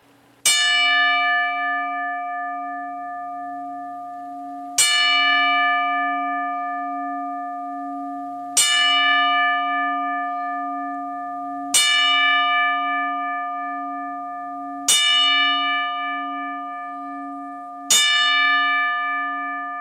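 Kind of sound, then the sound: signal or alarm, ten bell salute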